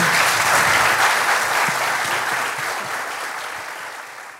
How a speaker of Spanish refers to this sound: Vamos a darle un gran aplauso a los tres.